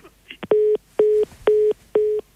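A telephone busy tone after a caller hangs up: four identical steady beeps at a constant mid pitch, evenly spaced with short silences between, sounding loud and alone.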